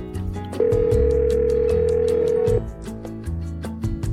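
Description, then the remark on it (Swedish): A single long, steady phone ringing tone sounds for about two seconds over a rhythmic music bed with regular ticking beats, then cuts off as the music continues. “Nej då, nu ringer vi upp henne. Nu kör vi!”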